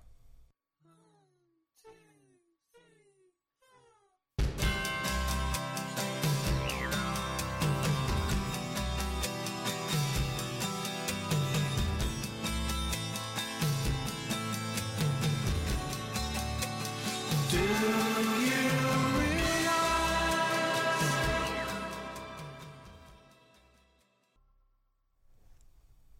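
A rock song plays from a record, opening with a few quiet, sparse notes before a loud full band bursts in, sustaining dense sound for about fifteen seconds, then fading out.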